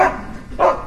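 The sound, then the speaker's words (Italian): A pet dog gives two short, sharp barks, the first right at the start and the second a moment later, moderately loud, with no talking in between. “eh, no no no questo questo è il mio cane saluta”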